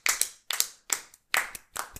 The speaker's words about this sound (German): Dafür finde ich, sollten wir einmal klatschen. Ja, aber klatschen ohne Hand auf den Tisch.